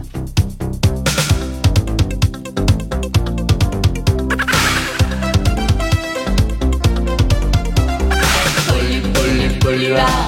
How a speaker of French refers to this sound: Pour finir, je vous propose d'écouter la chanson de ce nouveau dessin animé. Elle vous, elle, vous allez voir, là, cette chanson, elle est géniale.